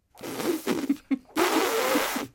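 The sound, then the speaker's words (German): A person imitates an elephant with a snorting, blustery mouth sound: a rough burst, a quick puff, then a longer rasping snort, loud with no speech. “Irgendwie so, die brusten auch so.”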